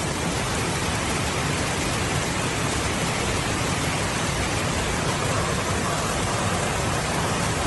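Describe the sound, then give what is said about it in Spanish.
Heavy rain from an atmospheric river storm pours steadily onto a road in northern California that a landslide caused by the rains left completely impassable. The rain is a dense, unbroken hiss of water that stays loud and even throughout, with no voices or other distinct sounds. “Es el sonido de una de las vías en el norte de California que por las fuertes lluvias sufrió un deslizamiento en las últimas horas dejándola totalmente inhabilitada.”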